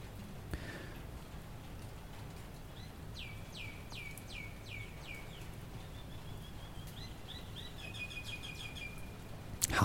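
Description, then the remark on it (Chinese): A lone myna beside a balcony sings a run of about seven quick, descending whistled notes, then a string of higher, varied chirps and tones, all over a steady, low rumbling background with rain falling and no talking. “我跟你说，其实啊，这个真相啊是一只鸟。”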